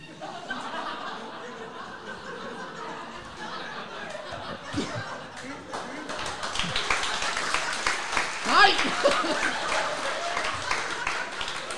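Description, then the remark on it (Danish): A crowd laughs and claps, starting with scattered chuckles and building after a few seconds into a dense, steady wash of applause mixed with laughter and some voices. “altså prøv at, jeg, jeg har brugt 16 timer på manus, så du får større klap og grin.”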